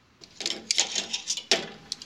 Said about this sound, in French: La porte d'entrée maintenant. Tu veux les outils bah oui, je vais pas l'ouvrir avec les dents. Passe-moi la chignole.